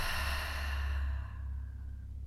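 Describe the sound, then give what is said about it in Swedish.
A long, steady exhale out through the mouth after a deep breath in through the nose, during a guided breathing exercise: a soft breathy rush of air that fades out over about two seconds, alone with no talking. “Och andas ut.”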